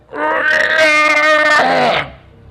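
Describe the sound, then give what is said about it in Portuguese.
A man screams in pain while biting a glove as his broken bone is pulled, the scream echoing through a cave: one loud, strained wail held for about two seconds before breaking off abruptly, with no other voices. “Quando ele morde, o grito dele ecoa na caverna inteira.”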